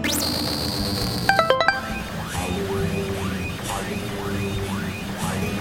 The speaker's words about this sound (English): What the hell is that? Ah, crap. That's our alarm when they find something. You didn't get evicted, did you? That's usually what it is.